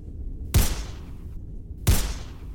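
video game gunfire

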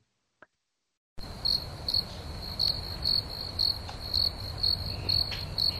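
cricket chirping

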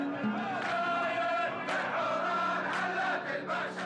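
crowd chanting protest slogans

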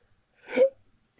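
hiccup

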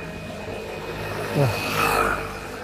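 loud motorcycle passing by

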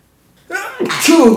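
sneeze

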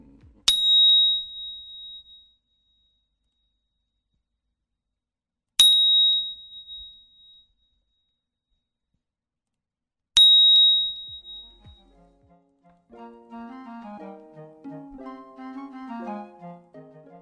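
small bell ringing

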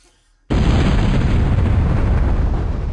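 explosion sound effect

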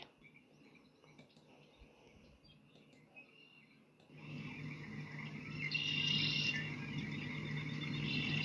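frogs croaking

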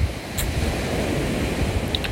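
ocean waves and surf

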